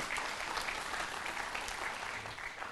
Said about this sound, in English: Give God one more good hand clap of praise this morning.